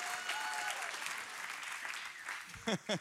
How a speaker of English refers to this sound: Come on, somebody. That was a good place to start clapping.